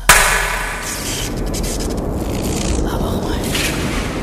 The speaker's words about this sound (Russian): Я сейчас э, хлопну в ладоши, и пусть атомный реактор воображения наших зрителей запустится.